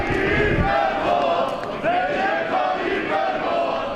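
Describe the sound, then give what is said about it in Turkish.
A large crowd chants and cheers for Erdoğan in unison during a grave visit, a dense roar of many voices with rising shouted phrases repeating every second or so, loud and continuous throughout. “edep ve adaptan yoksun, kendini bilmez bir grup kabir ziyareti sırasında Erdoğan'a tezahürat yapıyor.”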